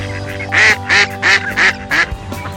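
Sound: mallard ducks quacking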